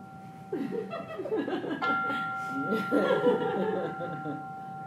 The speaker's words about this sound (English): We'll just be doing it for five minutes. You have hmm, you have 20 seconds to settle in, to prepare. Then you hear another gong.